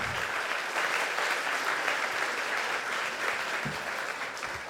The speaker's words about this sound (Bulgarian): Дайте ни аплодисменти да го чуе.